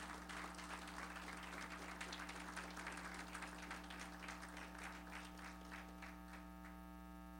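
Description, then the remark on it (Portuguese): An audience applauds the Lord Jesus Christ in a dense, steady patter of clapping that gradually thins to scattered individual claps, all over a constant low electrical hum. “Vamos aplaudir o nosso Senhor Jesus Cristo?”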